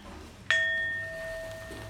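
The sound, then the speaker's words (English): A single meditation bell is struck once to begin a group art-and-meditation healing session, giving a bright metallic strike that settles into a clear, sustained ring slowly fading against quiet, with no talking. “So I'm going to start by ringing the bell once, and everybody take a deep breath.”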